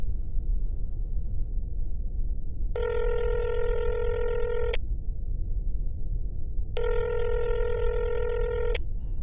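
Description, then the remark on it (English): A phone being dialed: two long, steady electronic telephone tones, each about two seconds with a pause between, sounding over a constant low rumble, with no one speaking. “I'm going to call him.”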